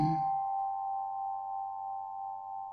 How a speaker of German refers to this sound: Höre die Kristalle, die klingen und singen.